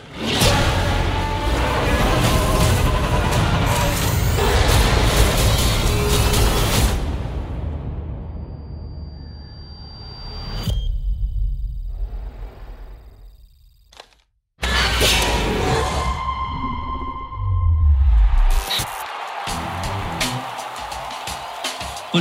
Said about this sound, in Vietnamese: chúng ta đã được nghe trailer của một phim 65 trận chiến thời tiền sử